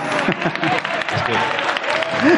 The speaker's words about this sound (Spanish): si seguís aplaudiendo no tenemos para las preguntas, ¿no?